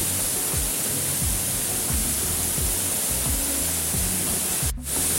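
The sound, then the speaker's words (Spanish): A waterfall, heard from inside it, roars with a dense, steady rush of water, loud, filling the scene without pause. Deep low rumbles churn underneath, and nobody speaks. “Ya dentro de la cascada es otro mundo.”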